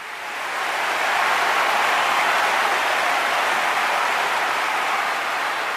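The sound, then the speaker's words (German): Loud, roaring applause swells up in the first second and then holds steady as a dense, continuous wash of clapping with no voices standing out. “Tosender Applaus brandete auf”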